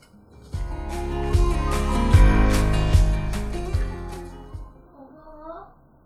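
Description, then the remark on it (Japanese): A child's voice, from an elementary school child at home on summer vacation, rings out for a few seconds, loud at first and then trailing off into a brief, faint call. “すいません、今、子供の声がちょっと入っちゃったんですけど、夏休みなんですよね。”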